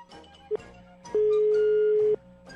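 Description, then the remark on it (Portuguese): A telephone ringback tone rings once as a steady one-second beep, preceded by a brief chirp of the same pitch, heard through the call line over a faint hum of background noise. “O telefone tá chamando.”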